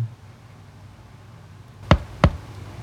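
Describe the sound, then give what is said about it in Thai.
Two soft knocks on a wooden bedroom door land in quick succession after a stretch of quiet hum; nothing else follows. Someone knocks around seven in the morning before opening the door to call the people inside to breakfast. “เสียงเคาะประตูห้องลาเต้ดังขึ้นเบาๆ”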